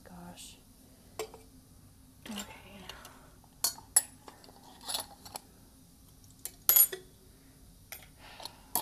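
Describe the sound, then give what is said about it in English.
Metal silverware and dishes clink and rattle in irregular bursts as they are picked up and gathered, with brief quiet gaps between handfuls and a faint low background hum. “I'm not exactly sure why I've been leaving the silverware.”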